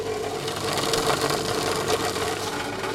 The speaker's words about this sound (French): Voilà, le bruit que vous entendez, c'est le moule avec la friture on va poser sur une table vibrante. L'objectif, c'est qu'en vibrant un peu, on lisse bien euh, le chocolat et on enlève éventuellement les bulles d'air qui pourraient être présentes.